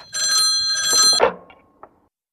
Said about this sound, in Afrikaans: Die foon lui.